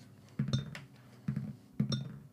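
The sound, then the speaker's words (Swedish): Dice are rolled for intelligence and observation, clattering across a hard surface in three quick rattling rolls, fairly crisp, with short pauses between them and no voices. “Då slår jag för intelligence och observation.”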